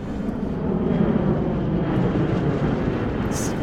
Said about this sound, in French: Cet avion qui passe et oblige à hurler.